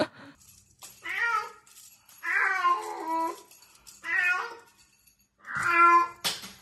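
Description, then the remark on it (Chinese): A female orange cat meows four times in drawn-out, rough, gravelly calls with a harsh, creaky tone, each separated by short pauses, ending with a brief noisy burst. “对，那它长得秀气秀气的母猫，然后橘色很漂亮，然后一开口， 一开口就破功了。”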